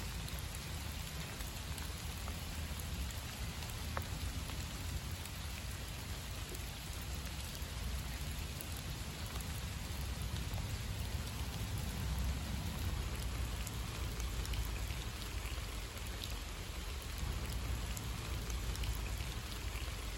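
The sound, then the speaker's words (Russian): Steady rain falls in a park in October, a dense continuous hiss of drops spattering on surfaces with a low rumbling wash underneath. No voices, just the even, unbroken downpour throughout. “Дождливый парк в октябре”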